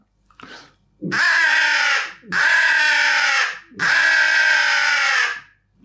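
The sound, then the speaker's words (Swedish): Three long, harsh, buzzy caws blown on a pro model crow call to imitate a crow, each about a second long with short gaps between, loud, preceded by a brief soft toot. “Alltså fan, det låter ju som en kråka.”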